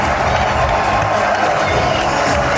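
A capacity crowd at a New York Knicks basketball game against Miami roars steadily, a dense wash of cheering and clapping that fills the arena without pause, loud throughout.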